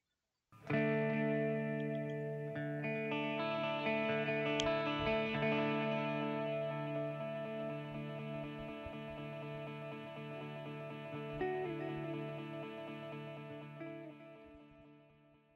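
A rock band song, released as a tribute to Kurt Cobain, plays with sustained, effects-laden electric guitar chords ringing out in rich harmonic layers, steady and fairly loud throughout with a slow, mellow feel and no voices.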